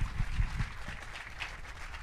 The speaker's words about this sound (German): der bringt die Kärtchen. Hey, jawohl! Kleiner Applaus für den Kartenmann!